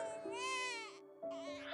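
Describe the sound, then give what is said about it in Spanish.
An infant in a crib in another room wails in two drawn-out, high-pitched bursts separated by a brief catch of breath. The cry is strained, with a faint steady tone running underneath. “Justo en el momento en el que cortará su cabeza, se escucha un llanto en el otro cuarto.”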